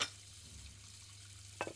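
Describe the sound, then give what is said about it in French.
Quiet kitchen background with a low steady hum and soft watery noise, then a couple of brief clinks near the end, as dishes are being washed. “J'entends le bruit de la vaisselle.”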